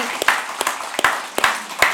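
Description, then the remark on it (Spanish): A church audience applauding its volunteer servers: a dense, steady crackle of many hands clapping, punctuated by a few louder, sharper individual claps roughly every half second, with no talking over it. “Aquí den un aplauso a todos los servidores que están, que vienen, que sirven, que están ahí.”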